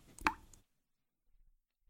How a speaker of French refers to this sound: Vous entendez, pas très loin, une petite goutte qui tombe petit à petit.